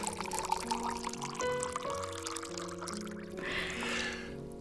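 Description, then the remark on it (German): Sparkling wine is poured into glasses, a steady gurgling stream with rising tonal bands as the glass fills, followed by a brighter fizzing hiss near the end. “Ich hoffe, der Sekt ist kalt genug.”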